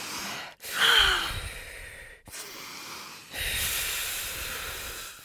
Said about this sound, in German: Jetzt kurz nochmal tief ein- und ausatmen.